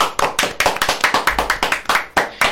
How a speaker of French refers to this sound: On peut l'applaudir.